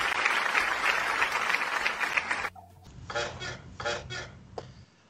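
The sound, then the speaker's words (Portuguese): A dense, steady wash of applause, added in editing, fills the first half, then cuts off abruptly, followed by a few separate rhythmic bursts of clapping-like noise that fade out. “Isso palmas que eu tô falando, depois eu vou colocar na edição, entendeu?”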